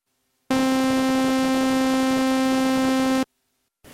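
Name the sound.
synthesizer sine wave tone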